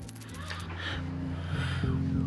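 A tiny test tube holding a little gold dust is shaken, giving a quick, light rattle of fine grains over a low steady hum, with a brief bright tinkle at the start.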